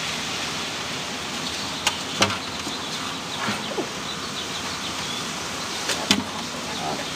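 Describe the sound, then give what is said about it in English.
Steady rain hissing down, heard from under a pavilion, with a few sharp drips and taps landing as if onto the roof overhead. No one speaks. “We're under a pavilion it is raining, so.”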